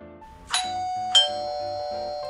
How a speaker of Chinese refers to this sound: 这时候门铃响了，阿平赶快跑去开门。